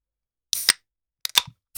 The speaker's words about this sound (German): Dann würde ich sagen, wir öffnen erstmal ein Bier und dann können wir die Maschine anschmeißen.